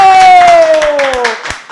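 An audience claps loudly and continuously to welcome a guest, the scattered hand claps filling the space, while a long sustained tone slides slowly downward over the applause before fading out.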